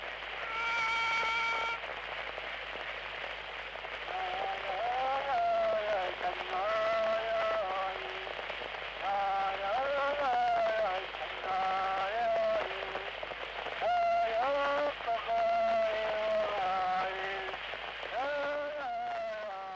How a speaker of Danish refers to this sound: Man kan da ikke afgøre en retssag med en sang. Så skal du lige høre den her. Øh, det er en nidsang, og den lyder sådan her.